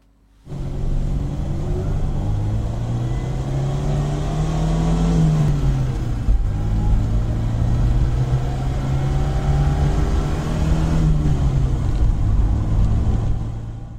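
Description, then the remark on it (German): An Opel GT's 1.9-litre four-cylinder car engine runs steadily for about fourteen seconds, its low throbbing drone rising and falling in pitch twice as it is revved up and eased back, with no talking. “Macht nichts, wir hören uns einfach nicht die Elektroversion an, sondern den 1,9 Liter Vierzylinder.”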